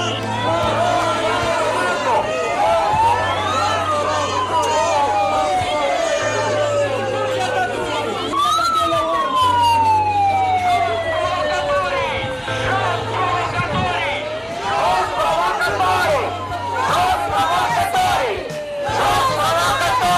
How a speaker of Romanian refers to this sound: Protestul s-a ținut în fața Parlamentului